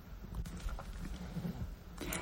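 A person sneezes once, a sudden breathy burst that breaks through a low, muffled rumble of background noise.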